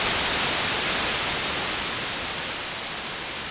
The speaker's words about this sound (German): Weißes Rauschen. White Noise. Oh, Rauschen ist ja auch so schön.